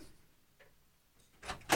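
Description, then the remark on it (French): A door swings shut after a near-silent stretch, ending in two quick scraping thuds, the second louder and sharper than the first. “J'étais en train de fermer la porte que tu voulais pas fermer.”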